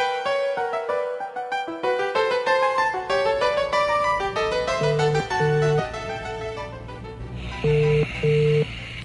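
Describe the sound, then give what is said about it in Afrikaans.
A telephone at Groenkoof estate rings with a bright, melodic electronic tune of rapid tonal notes, ending in a few repeated beeping tones, fairly loud with no one talking. “Antwoord die foon vrou mens.”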